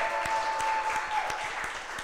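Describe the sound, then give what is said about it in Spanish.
A crowd claps steadily, a dense wash of applause at an even volume with sharper individual claps popping through, and a faint high whistle briefly riding over it. “Fuerte el aplauso.”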